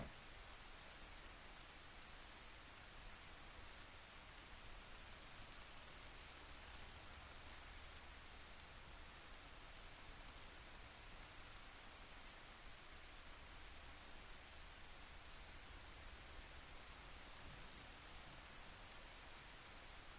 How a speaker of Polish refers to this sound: woda symbolizuje siłę, mądrość, zmianę. Oddychając głęboko, wsłuchuj się w jej dźwięki.